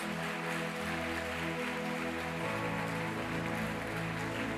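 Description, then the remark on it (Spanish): A church audience applauds the Lord in a dense, steady roar of clapping that holds for several seconds, with sustained low keyboard-like tones running underneath and shifting pitch partway through. “Fuerte ese aplauso al Señor de señores.”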